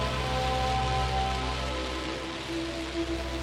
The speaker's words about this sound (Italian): È arrivata la pioggia, ma ci siamo riparati sotto la protezione dell'albero.